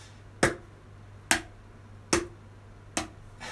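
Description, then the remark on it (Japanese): Four crisp hand taps on a mini cajon, alternating right and left hand in a practice pattern for the second beat, evenly spaced in a slow, steady beat, each a sharp slap that fades quickly, with no talking and a faint low hum underneath. “これは手順はネギハートネギハート右でネギ左でハート右でネギ左でハートはいネギハートネギハートねじゃあ手順だけ一回一緒に叩いてみましょうせーの”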